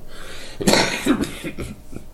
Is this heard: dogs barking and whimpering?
no